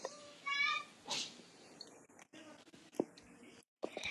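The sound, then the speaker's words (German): A young boy, the speaker's little brother, shrieks in the background: a few short high-pitched squeals and noisy cries, moderately loud, with some scattered clatter and shuffling around them. “Also im Hintergrund ist mein kleiner Bruder, also der schreit da.”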